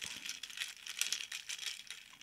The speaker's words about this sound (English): Still a bit of a dual color happening here, but I am going to ruin it by mixing it because that's what you do. You mix it all together before you take a sip.